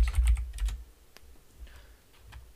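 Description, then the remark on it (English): Rapid clicking of keys on a computer keyboard as someone types a search about NFL staff numbers: a quick burst of several keystrokes up front, then sparser, softer taps trailing off, fairly quiet with no talking. “Just like using your keyboard.”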